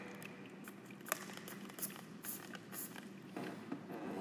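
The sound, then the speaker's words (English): Several short, hissy spritzes of alcohol mist from a spray bottle in an empty church, fairly soft, in an irregular series of quick bursts with faint handling noise between them and no talking. “Hopefully, that spray bottle does not contain holy water. Actually, hopefully, it does. That Get myself a spray.”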